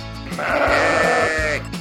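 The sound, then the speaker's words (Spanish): A single long, wavering sheep bleat, loud, lasting over a second with a strained, nasal quality and no one talking. “Hola oveja lana, ¿qué tal te fue esta semana?”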